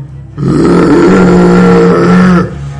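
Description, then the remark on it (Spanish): A single loud, deep monster roar, the third roar heard by the Forja Negra brothers in a role-playing game, rises abruptly and holds for about two seconds, rough and rumbling, alone, then cuts off into quiet background. “Escucháis los hermanos Forja Negra un tercer rugido.”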